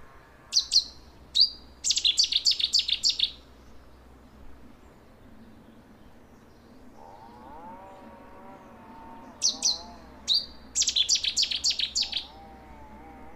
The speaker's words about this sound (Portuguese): Rouxinol Bravo